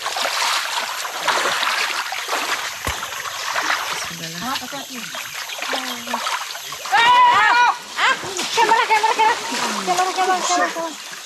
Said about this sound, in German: Da fällt der Fixer mit dem Equipment-Rucksack ins Wasser. Oh, und der Drohne.